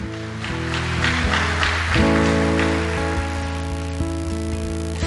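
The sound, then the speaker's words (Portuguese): A church audience applauds God steadily for several seconds, a dense wash of clapping over sustained, droning keyboard chords that keep playing throughout. No one speaks. “Vamos aplaudir esse Deus maravilhoso, gente.”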